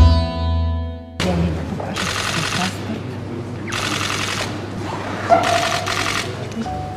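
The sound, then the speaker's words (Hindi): Rapid bursts of many camera shutters clicking and whirring in clusters, loud, over a busy murmuring room with a faint background hum, as pictures are taken of Russian President Vladimir Putin casting his vote on Wednesday in the referendum on constitutional amendments to extend presidential terms. “ये आवाज़ें जो आपने सुनी वे कैमरों के क्लिक करने की है ये तस्वीरें तब खींची गईं जब रूस के राष्ट्रपति व्लादिमीर पुतिन ने देश में राष्ट्रपति का कार्यकाल बढ़ाने को संविधान में संशोधन के लिए कराए जा रहे जनमत सर्वेक्षण में बुधवार को अपना वोट डाल रहे थे”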